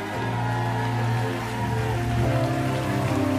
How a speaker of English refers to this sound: One more time, give the Lord the mightiest hand clap and shout.